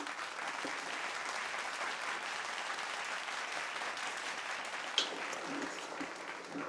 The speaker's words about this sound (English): Not sure why that line rendered so much applause. I'm a Disney character. Everything I say is applauded.